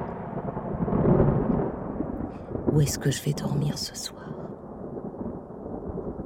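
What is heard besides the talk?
thunder rumbling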